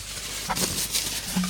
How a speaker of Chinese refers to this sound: 这是卫生纸的声音。为什么要拿卫生纸呢？你们自己脑补啊，自己想啊。